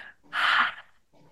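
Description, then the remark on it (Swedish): A single open-mouthed exhale during a breathing exercise, with resistance made in the throat, giving a hoarse, constricted sound like fogging up a bathroom mirror: a breathy rush of air lasting about half a second, followed by a faint murmur. “Du kan andas ut så här med munnen. Mm. Som att du immar en spegel i badrummet när du har, när du har duschat.”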